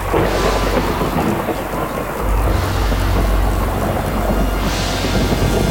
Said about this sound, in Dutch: Grijze wolken verschenen op de horizon, beklommen de hemel. Het werd donker overdag. Boven de steppen bliksemde het en windstoten kondigden buien aan.